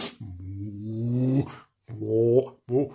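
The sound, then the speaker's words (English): A person imitates a cow with three low, drawn-out vocal moos, a long one followed by two shorter ones, fairly loud with brief pauses between them. “That's supposed to be a cow.”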